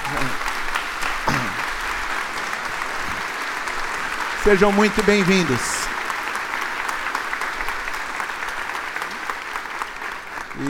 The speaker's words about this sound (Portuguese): Isso, pode aplaudir mesmo, a igreja toda.